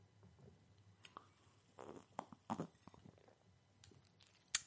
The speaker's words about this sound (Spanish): Pero yo lo voy a hacer porque yo rompo con todo lo establecido para tomar un sorbo de cerveza.